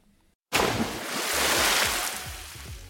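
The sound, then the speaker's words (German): After a brief pause, a sudden loud splash erupts as something jumps into cold water, followed by a couple of seconds of rushing, churning water that slowly settles. “So, mit diesem kleinen Sprung ins kalte Wasser hier verabschiede ich mich auch aus dieser Folge.”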